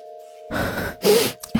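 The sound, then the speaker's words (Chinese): Heavy, breathless panting of a girl who has run up to two people: a few loud, airy breaths in quick succession, with a steady faint tonal hum running underneath and no talking. “女孩子气喘吁吁的奔到两人跟前，一脸的焦急。”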